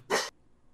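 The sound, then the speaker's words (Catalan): A dog gives one short, sharp, fairly loud bark, followed by near silence; the dog is barking at someone passing by. “És el meu gos que segurament eh, ha vist algú passar sí.”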